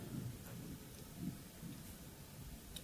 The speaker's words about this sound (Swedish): Du hör att, hon, att vattnet börjar rinna där inne.